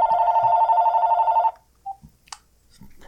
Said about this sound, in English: Oh, Christ. You got a phone call? Um, apparently I do. Hang on just a second.